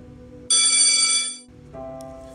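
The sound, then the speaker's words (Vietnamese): A loud electric school bell rings for the end of class in one continuous, bright burst for about a second, then cuts off abruptly, leaving soft, steady tones humming quietly in the background. “tiếng chuông hết giờ vang lên chưa bao giờ tôi cảm thấy nóng lòng chờ được nghe tiếng chuông tan học đến vậy”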